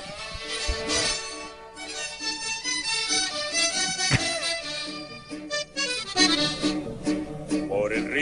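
A recorded song intro plays steadily and fairly loud, with full, rich instrumentation and sustained melodic notes, a few sharp accents along the way, and no voices over it.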